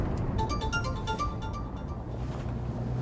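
A phone rings inside a car crawling through traffic toward an intersection, with a quick, repeating electronic melody over a steady low rumble of engine and road noise; the caller shows on the screen in the middle of the dashboard. The tones stop after a couple of seconds while the rumble continues.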